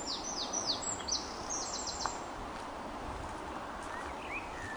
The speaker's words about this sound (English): faint now against the sound of the bird call. And we're just going to stop a while in the centre this wonderful forested glade and listen to the sounds that help us relax even further.